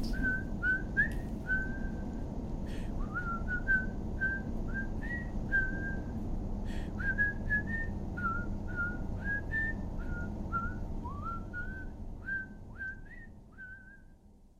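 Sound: cheerful human whistling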